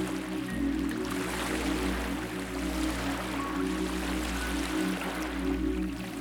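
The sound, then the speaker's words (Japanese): A steady, even wash of ocean waves on a clean seashore fills the scene, with a soft low drone humming beneath it and no voices, in a beach meditation set on a private beach. “今あなたはきれいな海辺に出てきましたここはあなたのプライベートビーチです”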